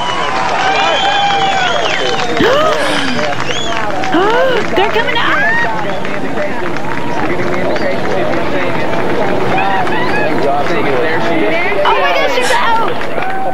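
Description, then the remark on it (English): A large crowd cheers and chatters continuously, many overlapping voices rising in excited shouts and calls at a steady loud level, with one person speaking briefly among them, as a girl is brought out of a drilled shaft after 58 hours. “I'm beginning to hear a, a cheer or two now.”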